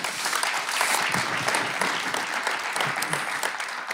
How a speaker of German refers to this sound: Sehr authentisch gespielt. Nochmal deinen Applaus.